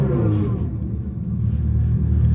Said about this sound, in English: it doesn't have an engine in it, so don't give it an engine sound